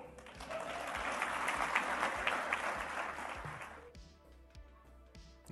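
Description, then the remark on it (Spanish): A crowd applauds Milei after his speech in Spanish, steadily, a dense wash of many hands clapping at a fairly loud level for about four seconds, then the clapping thins out and fades into scattered claps. “Ahí le aplauden a Milei.”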